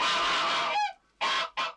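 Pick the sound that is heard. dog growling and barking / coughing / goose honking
goose honking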